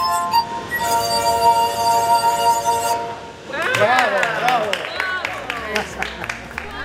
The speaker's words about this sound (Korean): 그 누구라도 유리잔 연주를 들어보면 기쁨을 느끼지 않을 수 없을 겁니다.